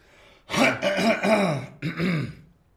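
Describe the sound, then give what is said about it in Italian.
A loud, forceful cough, a long rasping, throaty burst followed by a shorter second one, with no talking around it. “Anche la tosse è bella potente.”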